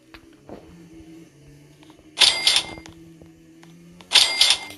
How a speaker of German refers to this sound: Da hat ein Handy geklingelt.